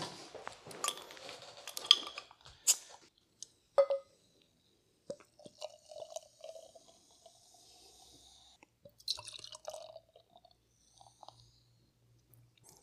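A bottle of amber-coloured beer is opened with glassy clinks and a sharp pop, followed by several seconds of soft gurgling pour and fizzy hiss, then a few faint clinks. No one speaks.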